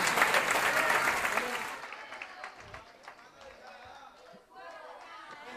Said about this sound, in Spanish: De España. De España, un aplauso para los hermanos que vienen de España.